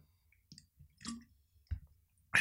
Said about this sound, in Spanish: Déjame tomar un poquito de agua.